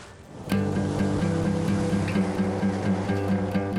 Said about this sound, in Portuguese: Esse daqui é o rio Mojuim, um dos locais mais procurados aqui na região norte, na Amazônia, por pescadores do Brasil todo. A gente vai embarcar agora na lancha